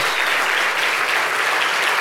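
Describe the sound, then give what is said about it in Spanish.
A large crowd claps steadily as applause for the Lord, a dense, continuous wash of applause that stays loud and even throughout with no voices standing out. “Dele fuerte ese aplauso al Señor.”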